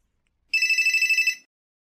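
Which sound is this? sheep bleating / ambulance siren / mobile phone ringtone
mobile phone ringtone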